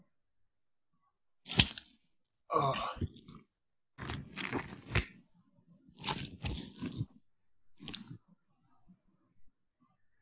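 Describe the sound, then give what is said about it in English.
Close, wet squelching and crunching as watermelon innards are squeezed, recorded with an Audix i5 microphone and a guitar contact mic with a suction cup, coming in about half a dozen irregular bursts with short pauses between. A voice briefly exclaims once. “B squeezing the innards of a watermelon. That is correct.”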